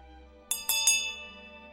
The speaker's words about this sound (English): While I was yet examining the instrument and asking myself whether it was not the work of some self taught optician, a bell rang sharply.